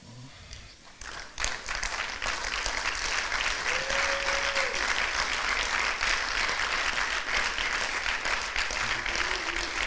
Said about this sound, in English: I want all the men to stand up and applaud the women of the past and all the women of the present.